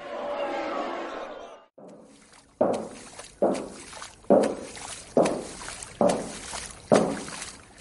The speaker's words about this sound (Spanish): ¿Escuchan eso? Son las fuertes pisadas del aguador, uno de sus rasgos más distintivos. Los pasos fuertes que daban por las calles, duros, de quien mucho carga. Hasta 48 litros de tinajas.